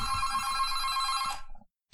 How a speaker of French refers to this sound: Oula attends attends attends petite pause il y a mon téléphone qui sonne on va voir alors attends attends attends